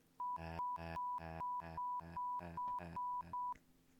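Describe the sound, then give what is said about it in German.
A rapid series of about nine loud electronic beeps in a steady rhythm, each a buzzy tone burst, with a thin continuous whine between them, then quiet. “Das heißt, ich kann jetzt einfach random mittendrin was piepen.”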